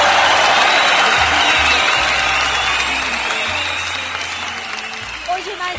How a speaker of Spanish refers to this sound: Bueno, mándale un fuerte aplauso a Don Cucaracho. ¡Fuerte aplauso a Don Cucaracho!